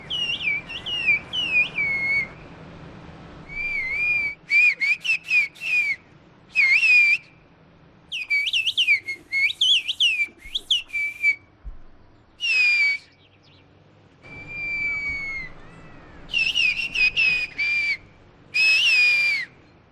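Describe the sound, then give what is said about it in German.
Two people converse in the whistled 'bird language' of the village of Kuşköy, a 65-year-old farmer woman and her neighbour whistling from roof to roof, trading loud, piercing, melodic whistles in short bursts with pauses between, one voice answering the other. “eine 65-jährige Bäuerin, die mit ihrer Nachbarin von Dach zu Dach die Vogelsprache spricht.”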